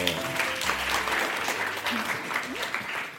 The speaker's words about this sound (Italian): Grande applausometro.